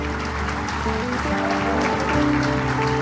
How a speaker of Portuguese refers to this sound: Amém? Dá um lindo aplauso a Jesus. Você pode fazer melhor, não pode?